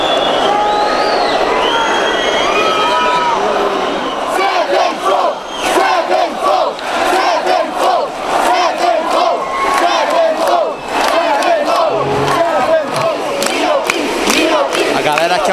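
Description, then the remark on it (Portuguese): A large concert crowd chants and cheers loudly and continuously, a dense wall of voices with rising shouts and whistles, calling for an encore after the band announced the end of the show and the lights went out. “Nesse momento ele anunciou o fim do show, mas a galera não vai deixar nem a pau.”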